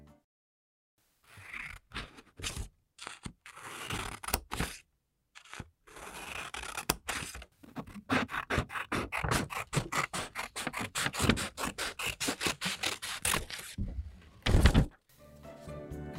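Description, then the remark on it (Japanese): Light, crisp scissor snips cutting thin hair, a quick series of short bright clicks and slicing rasps, steady and fairly soft, with brief pauses between bursts and no talking. “まあ、髪を切る音にもいろいろあると思うんですけど、うん、あのもちろん分厚い髪を切る時のちょっと重い音も好きなんですけど、今日は、うんうん、あの薄い髪を切る時のちょっと軽めの音を。”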